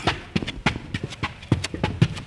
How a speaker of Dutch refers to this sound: Klim hier over een paar pallets en dan een bouwtrap op.